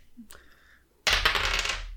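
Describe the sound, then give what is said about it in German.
A white die with black dots is rolled on a table and lands on five: a faint tick, a brief pause, then a loud rattle of clattering and tumbling that carries on to the end, with no voices. “Hm, nehmen wir doch weiß als äh, äh hoffnungsfrohes äh, Hasenvermöbeln, das weißen Würfel versteht. mit schwarzen Punkten.”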